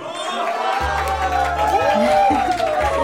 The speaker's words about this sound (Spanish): y un fuerte aplauso para su creadora